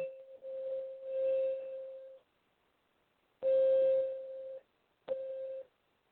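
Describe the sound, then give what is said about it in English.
A small singing bowl rings out a steady, bright mid-pitched tone in three stretches, each later one starting with a sharp tap before the sustained ringing, with brief silences between and no talking. “So tapping it first and then continuing the playing gets sound out of it quicker.”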